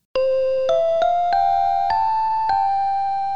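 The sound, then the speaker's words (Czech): A regional announcement jingle at a Czech railway station: a short melodic chime of about six bright, ringing tones stepping gradually upward in pitch, clear, with no voices. “Na českých vlakových nádražích už neuslyšíte regionální znělky.”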